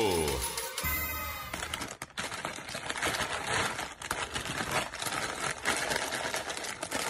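A bag of potato chips being crinkled and handled, giving a loud, dense stream of irregular crackles and rustles that follows a short tonal swoosh at the start.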